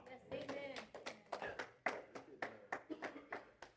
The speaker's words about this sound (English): You know, after all that, I expected more than four claps.